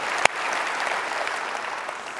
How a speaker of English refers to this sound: And so this is a church that believes deeply in investing, coaching, mentoring, discipling the next generation and raising them up. Yeah, it's, it, it deserves, they deserve our applause.